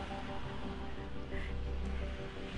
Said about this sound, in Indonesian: gue lagi nongkrong nih di pinggir jalan uh, mohon maaf ya banyak suara motor karena emang kita lagi di pinggir jalan juga gitu